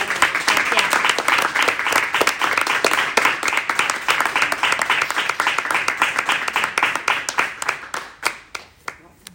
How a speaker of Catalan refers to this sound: Fem un aplaudiment.